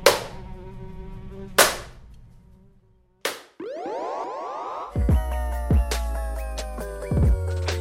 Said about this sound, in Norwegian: Jeg eh, skal bare finne den fluesmekkeren.